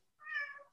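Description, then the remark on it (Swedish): A single drawn-out cat meow, fairly clear, rising and then trailing off, followed by a brief noisy burst at the very end. No one speaks. “Jag kan säga det är en katt du har som jamar omkring dig.”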